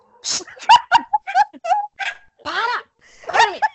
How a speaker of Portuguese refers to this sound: deixa, deixa eu só xingar o cachorro. Tá. Cala a boca.